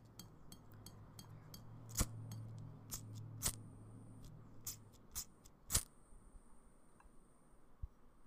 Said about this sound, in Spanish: Voy a hacer, voy a prender la vela.